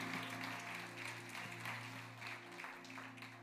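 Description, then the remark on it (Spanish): An audience gives itself a loud round of applause as it is welcomed, with dense, steady clapping that fills the whole moment over a low, constant electrical hum. “Vamos a dar un fuerte aplauso a nuestra audiencia. Can we give our audience a great clap?”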